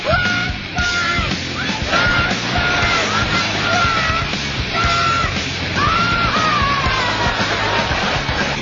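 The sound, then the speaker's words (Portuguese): A woman yells in sharp, high-pitched bursts over a dense, constant crowd din, loud, with the voices and commotion filling the whole stretch. “De repente, eu grito.”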